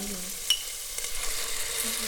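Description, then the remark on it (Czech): About two to two and a half decilitres of red wine, a 2020 Moravian Frankovka, poured into a hot pot, a steady bright hiss of sizzling that rises and surges as it's poured, with a short sharp clink near the start and low bubbling underneath. “Leje se tam víno. Tak a už nám bubla a počkáme, až se nám trošičku odvaří.”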